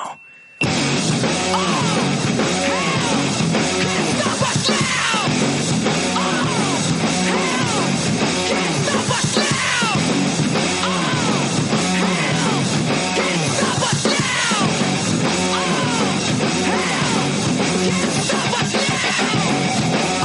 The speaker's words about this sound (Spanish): Un tema pues un poquito fuerte, tanto musicalmente, eh, un rock bastante duro, bastante pesado, como letrísticamente, ¿no?